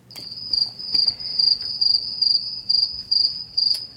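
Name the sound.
cricket chirping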